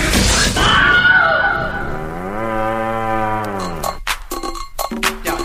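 A cow lets out one long, loud, drawn-out moo, its pitch swelling and then sinking, with a burst of rough noise before it and scattered clattering knocks afterward.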